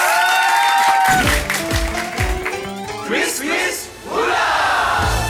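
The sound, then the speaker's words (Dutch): A quiz show audience bursts into loud cheering and applause after a brief sustained tone, with whoops and shouts rising over steady clapping for several seconds. “maar laat je even horen over Ella Leijers”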